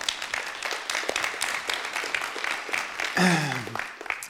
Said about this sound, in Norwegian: Tusen takk til lovsang. Det er nydelig å lovsynge sammen med dere. Det, det, er nesten så de fortjener en applaus, er det ikke det? Ja.